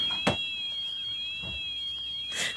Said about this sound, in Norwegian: Og alarmen som går, det er, det er gressklipperen som, som sier ifra. Sier ifra.